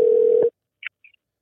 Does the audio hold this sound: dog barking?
no